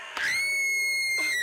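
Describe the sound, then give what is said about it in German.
The doorbell of a haunted castle rings out as a loud, shrill scream, starting with a sharp rising wail and holding a long, piercing tone with a brief waver near the end. “Das ist die Türklingel vom speckigen Spukschloss.”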